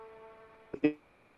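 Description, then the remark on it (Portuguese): A faint, steady buzzing tone is cut by two abrupt, choppy bursts of garbled sound, like a call connection breaking up before fading back to the low hum. “É, estava picotando um pouco, eu não estava ouvindo, mas vamos lá.”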